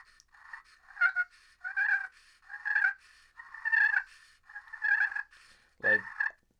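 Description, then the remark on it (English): A glass turkey call worked with a striker gives a steady series of about seven high-pitched, raspy yelping bursts, fairly loud, with no voices, ending on a sharper cluck-like note. “but then you jump to a glass, and this, this is what I love.”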